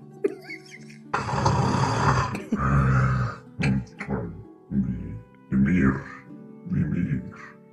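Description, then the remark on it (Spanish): A voice imitates loud snoring: two long, rough, rasping snores, followed by a series of shorter snorting bursts at a steady rhythm. “Todos Están, eh, roncando más, definitivamente, Mog. Más que nadie.”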